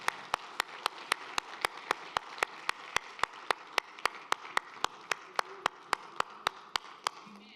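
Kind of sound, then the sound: crowd, audience clapping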